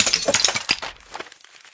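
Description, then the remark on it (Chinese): A thrown book box crashes down onto a desk, scattering books, paper, brushes and an inkstone, as a bowl of tea shatters: a bright burst of breaking crockery and clattering that rings out, then scattered tinkling fragments fade away over the next second. “只听豁啷啷一声，砸在桌上，”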